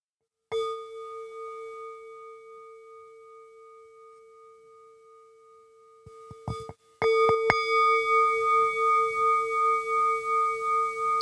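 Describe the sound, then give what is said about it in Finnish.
A 500-gram singing bowl is struck and rings with a long, steady metallic tone that slowly fades, then a few quick taps and a louder second strike set it ringing again with a pulsing shimmer. “Sulla on äänimaalia mukana, haluatko soittaa sitä?”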